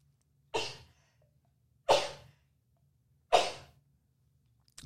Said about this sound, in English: hang on i'm going to sneeze